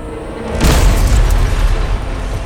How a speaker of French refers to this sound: Dans un fracas de bois et de métal, son arme pénètre la défense adverse, mais la violence du choc le projette sur le sol et il perd connaissance.